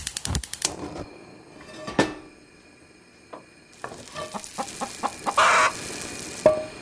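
Chickens cluck in short, irregular bursts amid sharp clicking and a sizzling, frying-like hiss, fairly close and moderately loud, with no voices.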